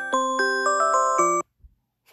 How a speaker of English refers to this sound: Oh, what the fuck? My alarm's going off for nine o'clock